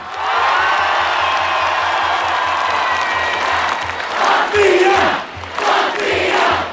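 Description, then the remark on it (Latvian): Tens of thousands of people in team shirts, holding flags and flowers, cheer at the Freedom Monument in Riga, Latvia, welcoming home the Latvian ice hockey team after its world championship bronze medals: a continuous roar with dense applause and scattered whoops swelling in waves, loud and sustained, no clear speech. “Ar skaļām ovācijām tērpušies komandas kreklos, karogiem un ziediem rokās Rīgā pie brīvības pieminekļa desmitiem tūkstoši cilvēku sagaidīja Latvijas hokeja izlase, kas aizvadītajā pasaules čempionātā izcīnīja bronzas medaļas.”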